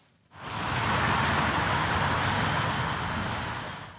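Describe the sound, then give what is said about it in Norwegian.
A steady, loud wash of road noise as cars roll past on rain-wet asphalt on the E16 at Sollihøgda, Norway, the main road between Oslo and Utøya, with a hissing spray of tires continuing throughout, no voices present. “Biler kjører på regnvåt asfalt.”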